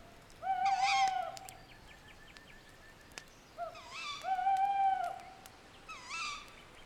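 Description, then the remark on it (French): An owl hoots in a forest at night, calling in two or three drawn-out, wavering bursts separated by pauses, clear against faint background hiss. “Le vent au loin, le bruissement des feuilles, le ululement du hibou.”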